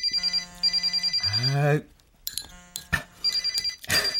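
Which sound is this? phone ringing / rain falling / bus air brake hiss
phone ringing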